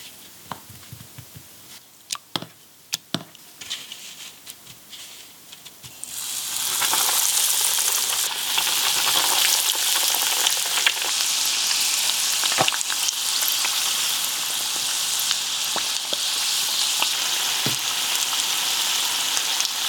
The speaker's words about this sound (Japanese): 今朝はアジフライのおいしい音それではお聴きください